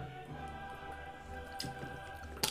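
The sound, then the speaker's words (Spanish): A quiet sip of water: a couple of soft wet swallowing clicks over a steady low electrical hum, with no talking. “Solo vamos a tomar un poquito de agua.”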